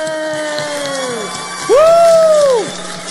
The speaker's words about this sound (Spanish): Bienvenido, hermano. ¡Aplauso fuerte!